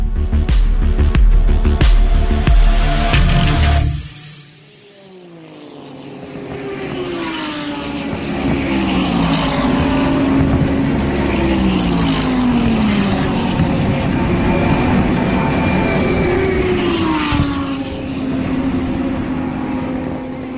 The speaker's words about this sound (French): Les sons que vous venez d'entendre ont été captés dans la nuit du 25 au 26 janvier 2020 vers la mi-course des 24 heures de Daytona, première épreuve du championnat IMSA WeatherTech pour voitures de sport, regroupant à la fois des prototypes